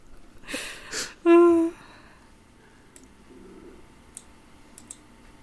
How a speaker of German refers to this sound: würfel du mal auf Wissen.